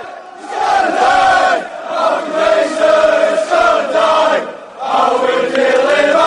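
Manchester football supporters loudly chant the terrace song "Vai lá" against Malcolm Glazer in unison, many voices carrying a rising and falling melody in long sustained phrases, with brief dips in volume between lines.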